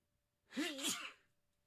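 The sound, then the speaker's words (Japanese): A single sneeze, a short voiced burst that breaks into a breathy, hissing rush of air and fades quickly, with no talking around it. “すいませんくしゃみしました”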